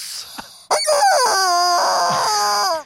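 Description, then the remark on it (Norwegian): A squeaky, high-pitched goose honk rings out loud, one long strained cry lasting about two seconds after a few faint rustles, with no one talking. “Det er ei pipete gås!”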